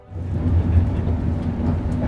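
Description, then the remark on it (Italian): A train carriage rumbles steadily along the rails, a continuous low, heavy drone with faint rhythmic clatter, fairly loud, with no voices. “Ascolta, Mona, ma questo qua non è lo stesso treno di prima?”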